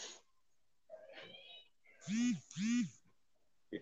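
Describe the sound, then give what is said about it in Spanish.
Two loud, drawn-out cat yowls in quick succession, each rising and falling in pitch, with fainter scattered sounds before them, like cats squalling outside in a fight or mating. “Se nota que los gatos están peleando ahí, va.”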